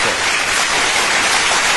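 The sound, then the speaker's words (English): A round of applause plays as a sound effect, a dense, steady crackle of many hands clapping at once, loud and unbroken for a couple of seconds with no voices over it. “Should we have a round of applause for that?”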